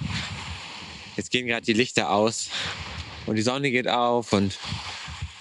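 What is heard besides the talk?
sea waves washing ashore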